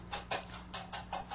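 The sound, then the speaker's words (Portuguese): Faint, muffled hoofbeats of more than one horse galloping far off, heard from a horse-drawn coach, a quick uneven rhythm of soft thuds repeating over a low steady hum, with no voices. “É galope de cavalo, sinhá!”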